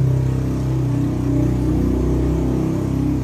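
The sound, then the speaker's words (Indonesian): Loud, steady airplane engine noise drones near an airport runway, a deep humming rumble with layered tones that holds for the whole moment. No one speaks. “maaf ya guys berhubung ini ya di sini dekat landasan landasan pesawat pesawat, pesawat, ya. jadi suaranya rada ya, suaranya agak suara agak bising”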